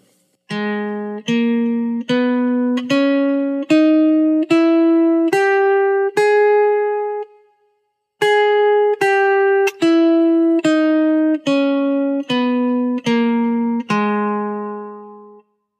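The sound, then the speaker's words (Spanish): A G-sharp harmonic minor scale (G#, A#, B, C#, D#, E, F double-sharp, G#) played in even, sustained tones: eight notes rising, a brief pause, then eight notes falling back down, the final low note ringing out and fading. “Sol sostenido menor armónica es Sol sostenido, La sostenido, Si, do sostenido, re sostenido, mi, fa doble sostenido y sol sostenido.”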